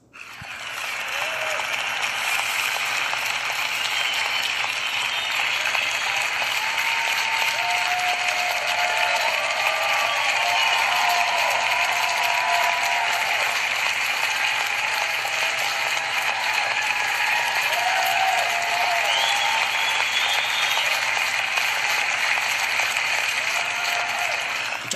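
Sustained audience applause, a dense steady wash of clapping that holds at an even loudness for about 25 seconds, with faint whistles or cheers rising briefly through it and no speech.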